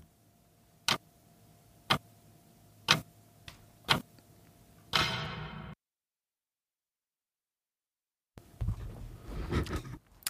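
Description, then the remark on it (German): A wall clock in an apartment ticks quietly and crisply about once per second for several beats at night, then a short burst of noise cuts in, followed by silence and a later stretch of rustling, clattering sound. “Nicht einmal das leise Ticken ihrer Wanduhr verhalf ihr diese Nacht noch einmal dein Auge zuzumachen.”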